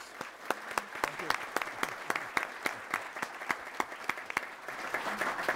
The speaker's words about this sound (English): Could everyone please give Rick Jackson a round of applause?